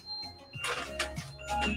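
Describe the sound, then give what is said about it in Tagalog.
A cellphone alarm rings with steady, high electronic tones, broken by a few short bursts of rustling noise. No one speaks. “Nag-alarm ang aking uh, cellphone.”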